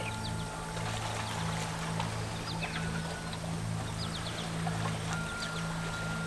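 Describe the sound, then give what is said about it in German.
Steady, gentle water sounds with soft trickles and small splashes as a small boat, its oars unused, drifts along a river current toward the sea, with a low continuous hum underneath and no one talking. “Der Fluss nimmt sie ganz von selber mit auf seinem Weg Richtung Meer.”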